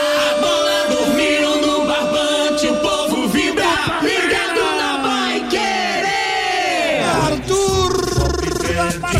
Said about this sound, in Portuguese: Está fazendo o quarto do Palmeiras. Festa da torcida do Verdão no Allianz Parque. Festa em todo o Brasil.